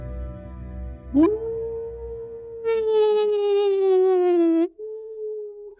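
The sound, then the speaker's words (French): A person imitates a wolf howl: a voice swoops up into a long, sustained tone that swells louder and richer, then drops slightly and trails off into a shorter held note. “Euh, ceci dit, je suis un mauvais imitateur parce que dans le hurlement du loup, il y a des variations qui donnent l'identité, le sexe, l'état émotif, l'état physiologique.”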